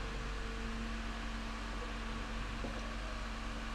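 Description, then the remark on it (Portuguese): A dump truck, following a garbage truck, passes by outside, rumbling with a steady, droning low engine hum and broad noise, holding an even loudness throughout with no one speaking. “Passa o caminhão de lixo, depois a caçamba. Agora é a caçamba.”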